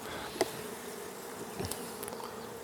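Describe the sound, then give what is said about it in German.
A steady, dense hum of many honeybees buzzing at an open hive while beekeepers take out frames, with a couple of faint clicks and knocks breaking through the continuous drone. No one speaks. “also wir versuchen da ein bisschen Zeit zu gewinnen, weil die Bienen geben da so Gas.”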